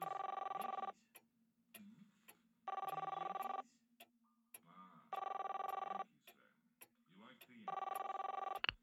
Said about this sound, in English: Ringing Murray Hill, 70093.